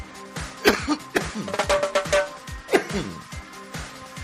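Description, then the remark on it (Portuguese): A few sharp coughs burst out at irregular moments, with murmuring voices and throat noises filling the gaps between them. “Se não tossir, não é treta top.”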